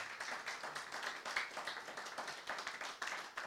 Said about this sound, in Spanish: Un fuerte aplauso para nuestro Señor y vamos a orar.